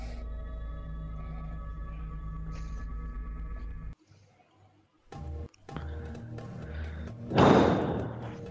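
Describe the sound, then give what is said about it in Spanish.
Boston harbor ambience with seagulls opens with a long, deep ship horn blaring for several seconds, then a brief hush before scattered thuds, clanks and a louder rushing burst near the end. “Bocinas y sonidos de gaviotas. Es el sonido del puerto de Boston.”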